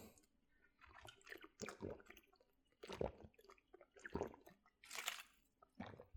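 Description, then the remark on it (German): Wet sips and gulps as a person takes a drink of water, several short slurps and swallows spread unevenly over a few seconds, with small mouth sounds between them and no talking. “sorry, ich nehme mal einen Schluck Wasser und ich schneide das gerade nicht raus.”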